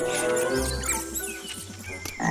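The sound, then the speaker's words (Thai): Frog croaking over a dense, continuous bed of chirps and trills, with a burst of clicking calls near the end; no voices, steady and fairly loud throughout. “วันหนึ่ง กบได้กระโดดผ่านมา”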